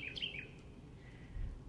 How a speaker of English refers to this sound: Hear that back and forth of the birds? That's the sound of a very happy thrasher. Poor guy somehow has been stuck in my house since yesterday.